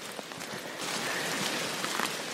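rain falling

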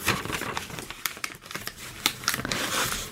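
paper being folded

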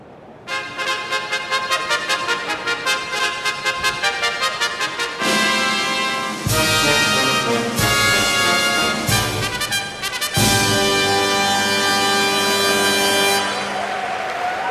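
horse race starting fanfare

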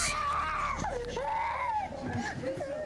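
people screaming

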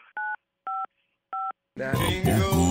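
telephone keypad dialing tones

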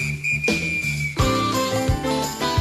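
whistling

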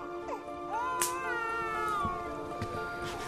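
baby crying

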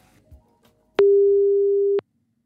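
telephone ringing tone

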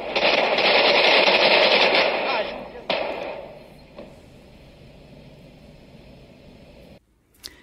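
gunfire

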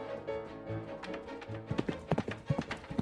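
horse hooves clip-clopping

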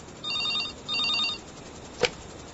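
telephone ringing

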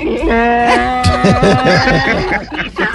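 donkey braying

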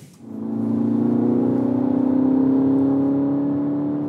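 car driving

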